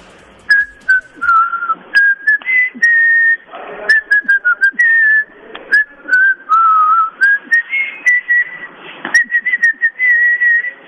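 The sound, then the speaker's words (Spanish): A radio caller whistles a requested song melody over the phone for about eleven seconds, a steady wavering tune in short phrases with breathy gaps, fairly loud over a slightly noisy line. “digo, pídela cantando, silbando, chiflando, tararando.”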